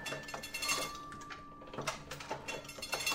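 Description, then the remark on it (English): An old printing press clanks and clacks in irregular mechanical bursts, sharp metallic knocks over a steady faint hum, moderately loud with no voices. “By the way, this is the sound of an old printing press.”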